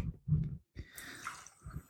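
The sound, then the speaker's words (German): More water pours steadily into a cooking pot for about a second, a soft splashing gurgle, preceded by a few dull low thumps of handling. “Ah, ich glaube, da kann noch ein bisschen mehr Wasser.”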